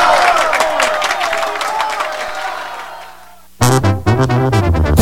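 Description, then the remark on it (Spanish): A crowd's loud, dense applause with scattered cheers fills the first few seconds, then fades away before a man's voice abruptly begins speaking. “pues el aplauso, el aplauso del día es para la guatemalteca Alexandra Alfaro”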